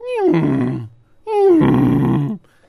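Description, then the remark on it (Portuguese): Two loud donkey brays, each a rough, harsh call that starts with a falling tone, separated by a short pause. “viu um gato, um cachorro, tinha um porco também, tinha um burro”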